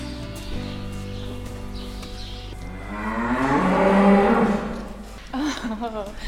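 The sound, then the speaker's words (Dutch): Cattle low indoors in a stable with cows and a bull: one long, swelling moo rises to a loud peak mid-clip, then a shorter, wavering moo follows, over a steady low background hum. “Dus er komt hier een mannelijke... Eh, ja, stier is dat dan zeker? Oeh, hij duwt de vrouwen opzij.”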